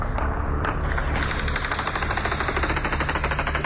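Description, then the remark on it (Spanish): Rapid bursts of gunfire crackle continuously, many shots overlapping in a dense, rattling barrage like automatic weapons fired into the air by the Taliban in Afghanistan, celebrating the US withdrawal. Loud and sustained throughout, with no voices. “Hace unos días, cuando los talibanes celebraban con tiros al aire la humillante salida de Estados Unidos de Afganistán,”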